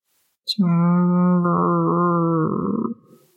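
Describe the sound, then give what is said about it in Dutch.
A single low, drawn-out animal growl, loud, holding steady for about two seconds before breaking into a rougher, raspy tail. A brief click comes just before it; no voices. “En als je aan het kijken bent, hoor je een soort laag gegrom.”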